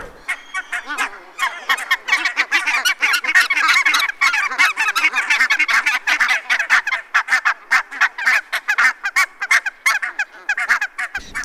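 A dense chorus of goose honking from a large flock of barnacle geese, overlapping calls repeating rapidly and continuously, loud throughout with no speech.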